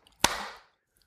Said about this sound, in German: Toll. Toll. Ganz, ganz toll toller Klatsch. Echt Wahnsinn.